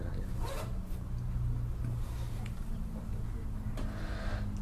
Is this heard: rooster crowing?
no